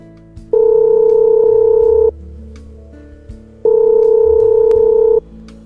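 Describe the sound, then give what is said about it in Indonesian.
A telephone line tone of a call to a dating agency sounds twice, each a long, steady electronic beep lasting over a second, separated by a short pause with faint background noise. It is clear and fairly loud, with no talking. “telepon dulu biro jodoh ini siapa tahu ada tuh untuk stok tahun baru”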